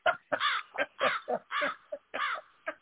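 A rapid run of harsh, raspy crow caws, about eight in under three seconds, loud, with no talking over them.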